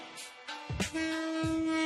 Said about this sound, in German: Ein Zug, der mitten durch die Gemüse- und Fischauslagen fährt. Warum eigentlich? Achtmal am Tag heißt es hier am Meklong-Markt Auslagen zurückfahren und Markisen einklappen. Denn dann kommt der Vorstadtzug.